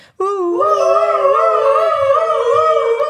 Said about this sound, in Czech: Já poprosím sirény.